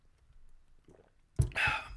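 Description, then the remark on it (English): Near-silence, then a faint slurp and a sharp gulp of water, followed by a breathy, satisfied exhale. No one speaks. “I'm gonna I'm gonna take a sip of some water here.”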